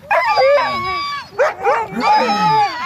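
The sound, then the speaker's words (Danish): A dog running around in a circle lets out a run of excited yelping barks mixed with drawn-out, wavering howls and whines, loud and almost continuous, with short sharp bursts breaking through, while a man holding a bolt gun goes in to it. “Og hunden løber rundt og lover og hyler.”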